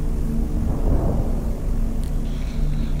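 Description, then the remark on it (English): Anti-aircraft flak explosions off in the distance thud as low, muffled booms, one swelling around the middle, beneath the steady droning engine rumble of an aircraft in a bomber formation. No voices. “Then suddenly, before the bomb bay doors were fully opened, the dreadful sounds of flak could be heard off in the distance.”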